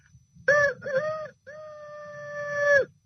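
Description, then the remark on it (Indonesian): A person imitates a rooster's crow: two short clipped calls followed by one long, drawn-out wavering note, loud, with a low background hum. “Eh salah ya, itu suara ayam.”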